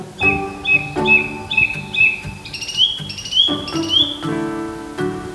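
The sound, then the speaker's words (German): A bird hidden in the trees chirps in a quick, steady series of about eight short, bright notes, clear against a soft outdoor background with no talking. “Vielleicht zwitschert er dann nochmal.”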